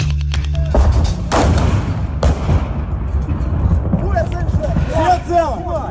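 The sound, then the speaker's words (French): Street fighting in Kharkiv, Ukraine's second city: a few loud, sharp gunshot and blast bursts crack over a dense, rumbling background, then shouting voices rise over the din toward the end. “Alors ce qu'on entend, ce sont les combats dans Kharkiv, la deuxième ville d'Ukraine.”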